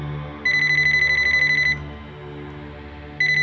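A mobile phone rings with a bright electronic trill, one long burst lasting over a second, a pause, then the next ring starting, clear and close with no talking.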